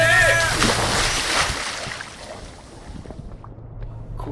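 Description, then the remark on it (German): An amphibious car-sharing vehicle drives into a lake in a dark forest with a loud, rushing splash and sloshing that fades over a few seconds, leaving a low engine-like hum underneath. “Ich fahre in den Wasser.”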